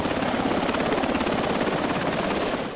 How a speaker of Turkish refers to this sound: Karla kaplı dağları, yolları aşamayan, köylerinden bile çıkma şansları olmayan hastalar için havalandı askeri helikopter. Üçü kadın, ikisi erkek, beş kişi kent merkezindeki hastaneye ulaştırıldı.